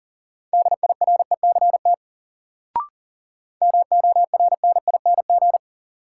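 Rapid Morse code at 40 words per minute, a drill of words from the top 400 words, in a steady mid-pitched beeping tone, keyed in quick short and long bursts: two runs of characters split by a pause with a single sharp click between them.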